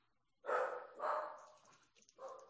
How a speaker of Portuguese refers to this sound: O que foi? Foi um cão. Um cão.